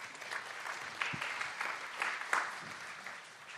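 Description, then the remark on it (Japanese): Steady applause from an audience welcoming an international technical analyst onto The Smart Trader Plus special stage at a Monex Securities event, a dense patter of many hands clapping at moderate volume throughout, with no one speaking over it. “大きな拍手でお迎えください。”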